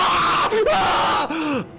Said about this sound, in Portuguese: Um grito engasgado em sangue.